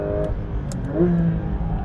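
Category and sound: vehicle, six-cylinder car engine revving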